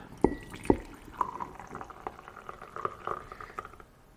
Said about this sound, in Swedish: Tar vi kannan här och så ska jag ta och hälla upp först.